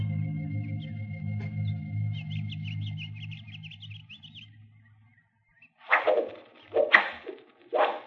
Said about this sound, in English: Hold your fire, men. Arrows. They're shooting arrows. What'd you expect? They're Indians.